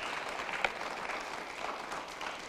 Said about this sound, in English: Now get the Lord a big hand and start listening to God.